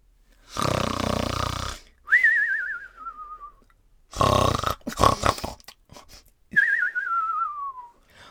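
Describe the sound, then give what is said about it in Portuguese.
Loud snoring from a giant sleeping deeply after running all night, in two cycles: a rough, rattling inhale followed by a wavering whistle that slides downward on the exhale, cartoon-style, likely a voice imitating it. No talking. “Os meninos estavam por perto e ouviram um ronco super alto.”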